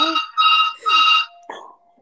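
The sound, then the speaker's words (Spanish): A telephone rings in three quick electronic trills, bright and fairly loud, followed by a short softer tone as it stops; no one speaks over it. “Perdón, pero el teléfono.”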